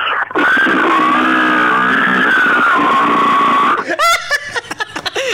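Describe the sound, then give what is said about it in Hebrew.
A person voices a long, loud, strained squeal imitating a pig, without any effects, held for about three seconds, then breaks into a few bursts of laughter. “תן לנו חזיר, תן לנו חזיר. טוב, יש חזיר חדש, שזה נשמע ככה.”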